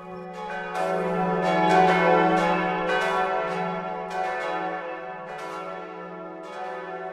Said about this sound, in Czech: Vyzváněly zvony